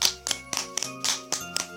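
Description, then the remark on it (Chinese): Brisk applause: about nine sharp, slightly uneven claps in under two seconds, fairly quiet, with a faint steady musical tone held underneath; everyone clapping hard. “不过，只是过了一小会儿，大家就都使劲地鼓起掌来。”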